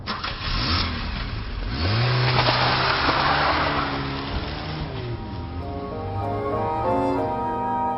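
A car engine starts up and revs hard, its pitch climbing through the gears as the vehicle accelerates away with tires squealing, loud throughout, with no talking.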